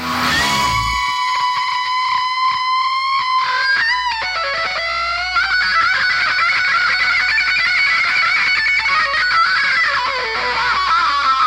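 A loud, distorted electric guitar solo from a rock song, with sustained screaming high notes that bend and waver, played continuously over a low rumbling backing with no voices.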